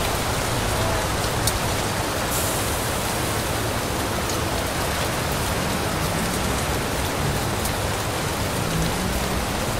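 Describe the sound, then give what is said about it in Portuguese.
Steady rain falling, a dense, even hiss of drops that holds at the same level throughout, with a few faint brief ticks and no voices. “A chuva parou.”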